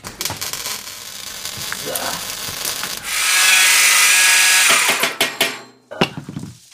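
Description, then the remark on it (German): Workshop noises of a saw and pliers on bicycle parts such as spokes and mudguards, being made into a cake carrier: rubbing and ratcheting clicks, then a loud sustained sawing or grinding burst in the middle, followed by a few sharp clanks and scrapes. “Speichen, Schutzbleche und ein Schweißgerät. Säge, ah, Zange.”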